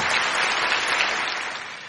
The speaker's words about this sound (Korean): 귀한 말씀을 증거해 주신 우리 목사님에게 뜨거운 박수를 한번 감사하겠습니다.